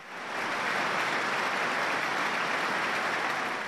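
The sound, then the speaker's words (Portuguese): A large stadium crowd of players and fans applauds steadily for one minute in tribute to Pelé before the Premier League match between Chelsea and Nottingham Forest, a dense, continuous wash of clapping that swells in within the first half second and holds at an even level with no voices standing out. “Antes de Chelsea e Nottingham Forest, jogadores e torcedores juntos aplaudiram o maior de todos os tempos durante um minuto.”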